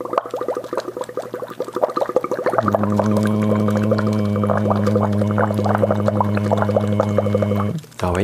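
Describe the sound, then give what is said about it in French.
Steady bubbling and gurgling as air is blown through a straw into a glass of water during a vocal straw exercise, with a sustained hummed voice tone joining midway and running under the bubbles until both stop abruptly. “ça, ça glougloute, hein, donc on cherche vraiment à ce que ça ne déborde pas lorsque l'on fait cet exercice.”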